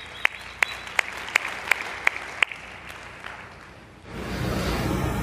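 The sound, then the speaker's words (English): Audience applause for a volunteer who stepped forward: a run of sharp, evenly spaced claps at first, then a denser, steady wash of clapping noise swells up near the end. No one speaks. “Yeah, give it up for that.”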